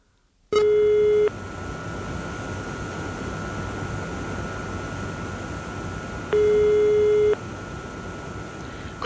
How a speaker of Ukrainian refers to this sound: Майстер Вайнке рішуче набирає номер телефону самого бургомістра.